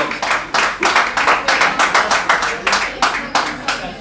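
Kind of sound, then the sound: crowd, class applause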